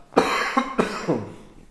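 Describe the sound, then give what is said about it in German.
A person coughs several times in a quick burst, fairly loud, with the last cough trailing off into a rough exhale. “Ja, voll muss mal kurz husten.”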